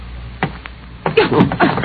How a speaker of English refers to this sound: I snapped off the light and waited. The door opened slowly.